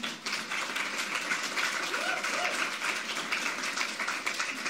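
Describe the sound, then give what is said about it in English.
An audience applauds the Lord for a couple, a dense, sustained wash of many hands clapping at once across the whole stretch, with a few faint voices rising briefly beneath the noise. “You know, let's just applaud the Lord for this couple, can we?”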